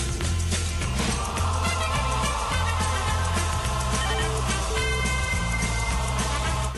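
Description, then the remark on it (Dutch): A phone rings loudly with a full musical ringtone, a steady bass line pulsing under layered melody for several seconds, with no one speaking. “ik hoor die telefoon ook. Als je dit geluid hoort, we gaan de volgende keer kijken hoe we dat uit kunnen zetten.”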